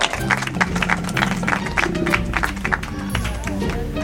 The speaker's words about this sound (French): Un tonnerre d'applaudissements